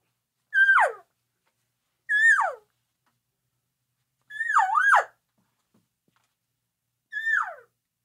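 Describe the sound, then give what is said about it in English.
Four mewing elk calls blown on a hunting call, imitating a couple of elk talking to each other while walking in, each under a second long and separated by pauses, with a high nasal tone that bends up and then slides down. No talking. “We're just walking in, we're moving along, and we're just a couple of elk talking to each other.”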